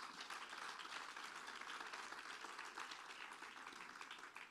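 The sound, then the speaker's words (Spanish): A crowd applauds steadily for Jehovah during a Christian sermon, a dense wash of many hands clapping at once, sustained and fairly loud for several seconds with no one speaking. “¿Le puede dar un fuerte aplauso a Jehová?”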